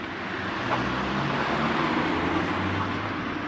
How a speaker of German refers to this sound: werde ich jetzt noch mal wenn dessen ein Auto hier vorbeifährt,